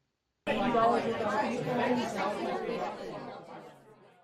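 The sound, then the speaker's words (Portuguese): A crowd of people outside at the front gate of a house murmurs and chatters together, many overlapping voices blending into a steady, indistinct babble that starts abruptly and gradually fades a little toward the end. “Os dois dançavam, cantavam e riam alto, quando foram interrompidos por um burburinho.”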